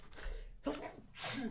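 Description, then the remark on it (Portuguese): A single sneeze: a sharp intake of breath, then a forceful, breathy burst that trails off, with no talking around it. “Saúde.”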